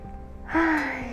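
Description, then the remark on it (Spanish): A single deep, audible inhale, taken with eyes closed during a guided breathing exercise, begins about halfway through, a breathy rush with a faint voiced edge that holds steady, then eases off. It is clear, with no talking. “Vamos a hacer una respiración profunda.”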